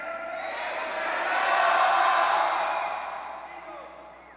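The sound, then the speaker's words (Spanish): A church audience shouts back together in response to a preacher, a loud, dense crowd roar that swells to a peak midway and then gradually dies down, with no single voice standing out. “No los escucho allá. Aquí no te escucho. Grita, mujer.”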